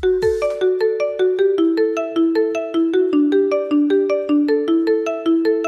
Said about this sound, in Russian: А вот такой рингтон